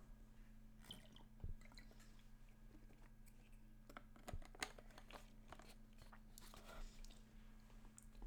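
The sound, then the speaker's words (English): Someone takes a quiet sip of a drink: a few soft, wet mouth clicks and swallows picked up by the microphone, with no talking, over a faint steady electrical hum. “Let me take a sip.”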